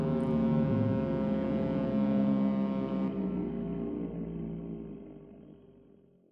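A deep, droning foghorn blast holds steady and loud for a few seconds, then slowly fades away with a lingering echo. No voices are heard.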